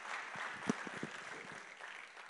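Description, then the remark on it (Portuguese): A church crowd applauds its volunteers in a steady, dense patter of many hands clapping at a moderate, even level, with a few sharper claps standing out briefly. No clear voices rise above it. “Uma salva de palmas aí para vocês.”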